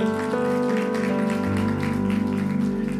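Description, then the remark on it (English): An audience applauds the worship team with dense, steady clapping that carries on for a few seconds over a sustained, droning keyboard chord. No one speaks. “Before you take your seat, give a round of applause to the wonderful worship team.”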